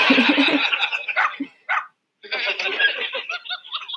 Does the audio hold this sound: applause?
no